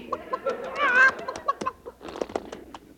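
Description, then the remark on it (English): A flurry of chicken-like clucks and squawks, fairly loud, with one drawn-out squawk early on and choppy clucking bursts running throughout, made in a comedy sketch for a horse that thinks it is a chicken. “Steady, Leghorn. Steady. Leghorn? That's a funny name for a horse. Yes, well, he has a mental block. He, he thinks he's a chicken.”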